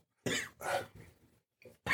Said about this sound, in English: It's the, the smell cough from taking a big whiff. So the proof on this is pretty intense.